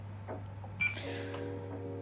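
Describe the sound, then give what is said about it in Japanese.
One short, high-pitched electronic chirp from a fire alarm signalling that its battery is dead sounds once over a steady low electrical hum, with no one speaking. “なんかすいませんねピッピピッピ言ってるんですけどあの火災報知器いまだにまだ連絡してなくていまだに火災報知器のあの電池切れですの音があのたまに入り込んでると思うんですけどすいませんうるさくて”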